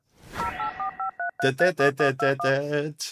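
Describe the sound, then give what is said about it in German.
A quick run of about six short touch-tone telephone dialing beeps, then a series of louder, buzzy voice-like tones in the same steady rhythm, all clear. “Meinst du, es gibt irgendwo Experten da draußen, die anhand dieses Sounds auch genau wissen, welche Zahlen wir gewählt haben?”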